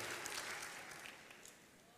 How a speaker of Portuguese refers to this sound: Uma salva de palmas. Aleluia.